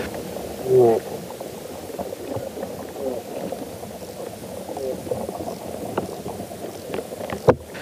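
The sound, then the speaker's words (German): Dense crackling and ticking from underground soil life, with soft smacking clicks and occasional sharper snaps over a steady muffled rumble, continuous throughout. “Also das ist ein richtiges Gelage, was da stattfindet mit Schmatzen und Grunzen und Knistern und Knacken.”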